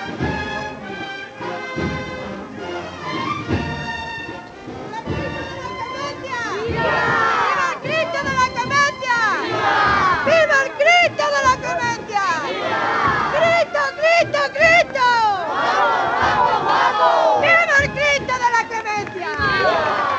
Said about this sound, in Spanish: la que encabeza estos vivas al Cristo de la Clemencia.